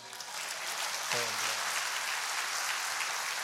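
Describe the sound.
Audience applause, a dense, steady wash of many hands clapping that stays loud for several seconds, with a brief voiced cry rising over it partway through.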